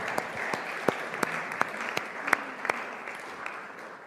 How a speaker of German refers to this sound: mit einem kräftigen Applaus darfst du hier mal nach vorne kommen.